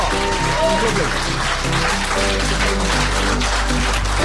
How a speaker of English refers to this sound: Brilliant. I think that's a great note to finish on. Huge round of applause.